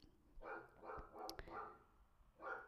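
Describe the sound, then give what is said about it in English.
A neighbour's dog barks in the background, a quick run of four barks followed by a short pause and one more, fairly quiet, with no one speaking. “There's the neighbour's dog barking in the background.”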